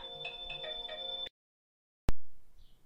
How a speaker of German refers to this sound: Oh, mein Telefon geht. Ich glaube, ich gehe da mal eben dran.